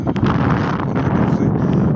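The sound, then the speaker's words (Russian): Steady, loud wind buffeting the microphone on a very windy, cold, frosty day, a dense low rumble with gusty rustling that fills the whole moment without letting up. “извиняюсь еще раз, у нас очень ветрено”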